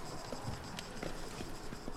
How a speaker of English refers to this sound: he gets down, pulls down three large student trunks and uh, puts them on the ground in front of Skelebro before hopping back up in the carriage and nickering at the horses to trot off, leaving the three of you here in town.